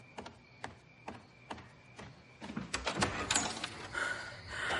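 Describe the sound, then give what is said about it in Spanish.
The front door of a house being opened: a series of sharp clicks and rattles of the latch and handle, then a louder, busier burst of creaking and scraping as the door swings open. No voices. “abre la puerta de la casa.”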